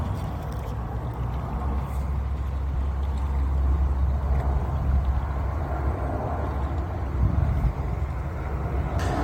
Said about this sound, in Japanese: 今はですね、シドニーの入江から、あ、今ね、飛行機通ってるんですよ。